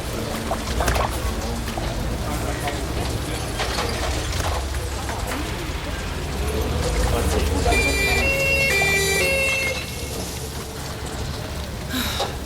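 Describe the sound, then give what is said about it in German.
An ambulance drives with its siren on, its alternating two-tone wail rising out of a steady rumble of traffic and street noise, strongest near the middle before fading. “Jedenfalls lebt sie noch, sonst würde die Ambulanz nicht mit Sirenen fahren.”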